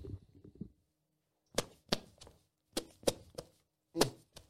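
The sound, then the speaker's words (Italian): A string of armpit farts: about seven short, wet squelching pops arriving in uneven clusters, each a sharp burst with quiet gaps between and no talking over them. “fare veramente le scoregge con l'ascelle, che...”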